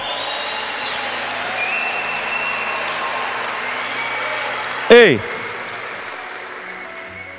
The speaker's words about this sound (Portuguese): Será que você consegue aplaudir Ele de uma forma diferente?